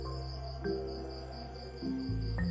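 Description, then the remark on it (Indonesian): A cricket inside a house chirps loudly and steadily in rapid, even pulses throughout, clear over a low background rumble, with no one speaking. “nggak tahu nih rumah gue padahal gue cari gue tuh cari-cari jangkrik gitu gue ya seneng mainan jangkrik tapi nggak ketemu gitu suaranya aja keras”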